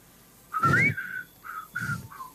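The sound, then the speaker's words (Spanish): Someone whistles a short spaghetti western theme in three breathy phrases, the first rising in a sliding glide, with puffs of air between the notes. “Hágalo, a ver, hágalo silbando.”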